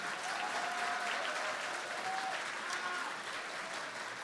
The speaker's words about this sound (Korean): 전도자의 가슴을 울리는 멋진 금관 오중주 연주였습니다. 우리 다시 한번 뜨거운 박수 부탁드립니다.